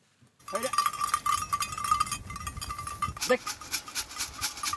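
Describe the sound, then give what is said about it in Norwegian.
Many small bells clank and jingle continuously as a flock of sheep moves, herded by the collie Scott on a field at a farm in Hørte, Telemark, Norway, a busy metallic tinkling with scattered rustling underneath. “Våler Collien Scott samla effektivt sammen sauer på jordet”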